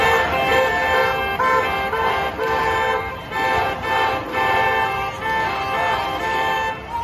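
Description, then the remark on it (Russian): Car horns honk repeatedly in a loose rhythmic pattern of short bursts at a street protest, drivers honking as many times as the crowd claps to the chant "no to war", loud and layered over a busy street background with crowd noise and traffic. “Мы, ну, хлопали в такт тому, что кричали, и автомобилисты сигналили таким же количеством гудков, как и количество хлопков к слову «нет войне».”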